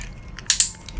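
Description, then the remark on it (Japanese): Two sharp mechanical clicks in quick succession, crisp and bright, from a handheld training clicker used as the correct-answer signal in animal training, with faint quieter ticks around them and no talking. “というクリッカーの音ですね”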